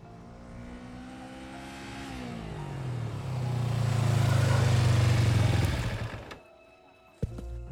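The engine of a small passenger motor tricycle, just ridden to a studio, idles, then revs up and roars loudly for a few seconds before cutting back down to a quiet idle, with a brief clunk near the end.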